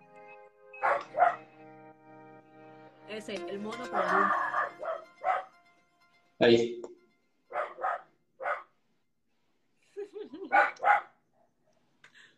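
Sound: small dog barking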